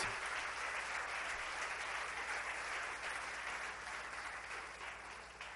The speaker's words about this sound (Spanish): Denle un aplauso a Dios.